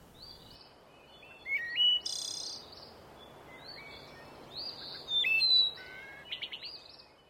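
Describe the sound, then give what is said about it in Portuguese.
Birds chirp at dawn at a barreiro (clay lick), with wings flapping, over a steady hiss, with bright high trills and whistled calls in overlapping bursts, loudest around two seconds and again near five to six seconds. “Mas quando devagarinho o sol tangia a escuridão, trazia tatalar de asas e de pios, uma alegria de cores e o barreiro se fazia bonito.”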